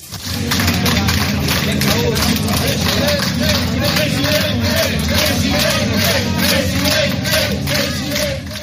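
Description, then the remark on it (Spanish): A large crowd at the Galician PP (Partido Popular) cheers and chants in unison, celebrating the party's fifth absolute majority in the Galician election that keeps Alfonso Rueda as president. A dense, loud roar of voices with rhythmic shouts and scattered clapping holds steady for the whole stretch. “Fiesta con los suyos, la euforia después de los nervios en una campaña donde hubo momentos complicados, según reconocía el propio Alfonso Rueda.”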